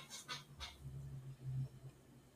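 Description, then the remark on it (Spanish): A chair creaks and squeaks, a low, groaning creak drawn out over a couple of seconds after a few quick scraping rustles, with no one talking. “Ay, mi silla, ¿por qué suena?”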